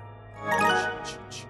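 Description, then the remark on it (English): A work messenger app notification chime rings out at night, a short bright electronic tone followed by two quick high blips, heard alone at moderate volume. “That night, long after the curtains had closed, the last bassoon had been put to bed, and he'd gone home to get some shut eye, Vince tossed and turned, guilt gnawing at him, and the sound of his work messenger haunting him.”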